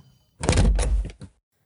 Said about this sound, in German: Er öffnet die Tür